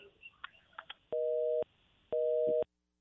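A telephone busy signal sounds over a line on a call to a company's telephone number that is not working: two steady, evenly spaced tone bursts, each about half a second long, following a few faint clicks and line noise.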